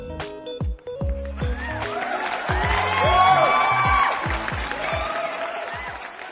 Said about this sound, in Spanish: Un aplauso por favor.